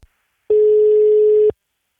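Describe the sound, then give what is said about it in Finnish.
A single telephone ringback tone: one steady, mid-pitched electronic beep lasting about a second, clear and fairly loud, followed by silence while a call to the groundskeeper of the Pikkala golf course in Finland waits to connect. No one speaks. “Me soitellaan nyt kolmelle kenttämestarille ja kysellään, missä Etelän kentillä oikeasti mennään.”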